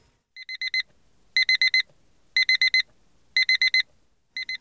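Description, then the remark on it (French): A mobile phone alarm rings in bursts of four quick, bright electronic beeps, repeating roughly every second, loud with no voices, waking someone up. “À peine réveillé par l'alarme de son portable,”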